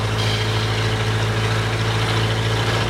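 Several car engines idle together in a traffic jam on the Route Nationale 7 at Lapalisse, France: a steady, loud low rumble, a dense drone with no talking and no breaks over the few seconds.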